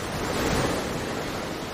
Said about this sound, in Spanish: Desde la orilla, el mar se siente así.